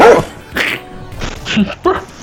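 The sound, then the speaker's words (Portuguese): A handful of short, sharp coughs with a yappy, bark-like quality, like a small dog, coming in quick irregular bursts, fairly loud; Álvaro Dias coughing during a live debate, from an edited montage. “Ah, que dá um latinho.”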